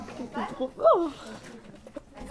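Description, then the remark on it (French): A person briefly imitates a clucking hen with a few quick, rising vocal clucks, moderately loud, followed by softer murmuring. “C'est mon âme de poule qui ressort.”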